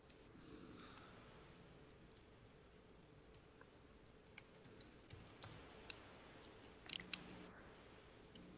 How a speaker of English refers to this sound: Okay, that that sounds like probably no, but I, I like that you're letting me roll the dice. I always will let you roll the dice.